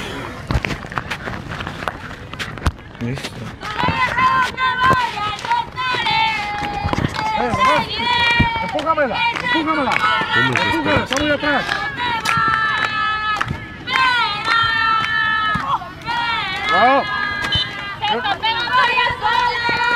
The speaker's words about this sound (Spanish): Ojalá se escuche la gran porra que está cantando la gente dentro de la transmisión. Dentro, del graderío por ahí, ahí está. Ojalá se escuche, ¿eh? porque la verdad se aventaron muy buenos cánticos, ¿eh?